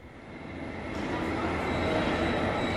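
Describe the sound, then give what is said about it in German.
An ICE high-speed train bound for Basel pulls in alongside platform 6 at a station, its broad rushing rumble and rail hiss swelling steadily louder, with no voices. “Auf Gleis 6 fährt in Kürze ein der ICE nach Basel. Vorsicht bitte bei der Einfahrt.”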